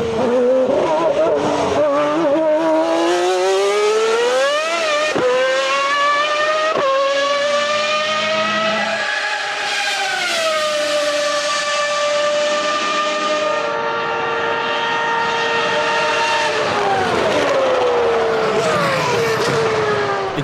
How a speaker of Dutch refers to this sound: Maar ik kan me niet eens voorstellen hoe die V12 geklonken moet hebben.